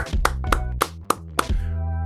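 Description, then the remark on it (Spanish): Five sharp, evenly spaced claps ring out about a quarter second apart over a sustained musical tone, loud, like a short burst of applause with no talking. “Ya están nuestros siguientes invitados a la distancia y me pueden ayudar con mucho cariño y con un fuerte aplauso a recibir”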